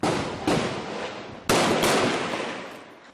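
Four loud, sharp gunshots in Rio de Janeiro state ring out in two quick pairs, each crack trailing off into a long echoing reverberation, with no voices present.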